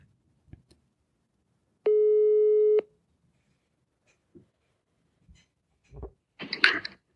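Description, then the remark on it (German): One steady, one-second ringback beep of an outgoing phone call placed to a doctor, followed by a few faint clicks and a short burst of line noise, as if the call is picked up. No one speaks. “wir können ja vielleicht mal probieren, ob wir den Dr. Mark Rauschmann tatsächlich ans Telefon kriegen”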